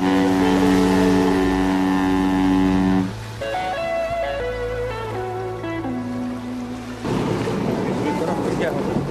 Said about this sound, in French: On est en train d'accuster. Le temps euh, pour le marin de stabiliser le, semi-rigide.